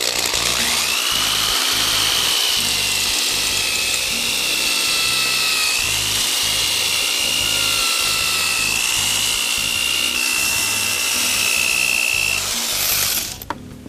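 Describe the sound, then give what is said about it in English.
A power drill runs steadily with the first, roughest-grit sanding disc, a loud whine over rough grinding noise that holds for about thirteen seconds before cutting off abruptly. “Put our first sanding disc on. This is the roughest grit. Follow the instructions again. Turn this on.”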